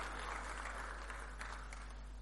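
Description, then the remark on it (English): An audience claps for themselves at the preacher's request, a steady dense patter of many hands filling the whole stretch at an even level, with no voices rising above it. “I want you to clap for yourself.”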